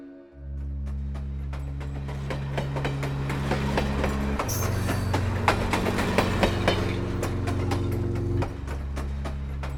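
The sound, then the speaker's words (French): A train rolls steadily along the rails with a deep, constant engine hum and a repeating clickety-clack of wheels over track joints, fairly loud with no voices. “Quand on prend le train euh, le matin à 7 h, on part, euh, on a une heure de cours à faire.”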